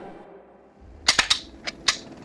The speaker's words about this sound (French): Tous les soldats autour de moi tirèrent immédiatement. Enfin bon, ils tentèrent.